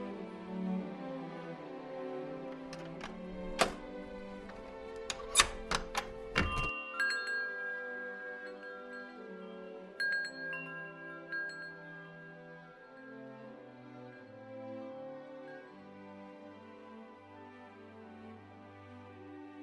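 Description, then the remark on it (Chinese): A short burst of metallic clicks and rattles of a key turning in the lock of a big white door and the door opening, over steady background music, followed by a few faint chime-like tones. “前面有一个白色大门，赶快拿起你的钥匙，就能打开艾玛的行销密室。”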